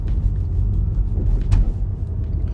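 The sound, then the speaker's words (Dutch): A car drives home along a road strewn with sand and branches after a storm: a steady, heavy low rumble of engine and tyres fills the whole stretch, with a brief brighter whoosh partway through and no one talking. “Ik rij maar gewoon naar huis en dan...”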